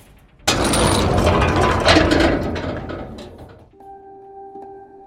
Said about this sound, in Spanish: Por último, se oyó de nuevo un ruido metálico. Alguien había cerrado la puerta y había echado el cerrojo.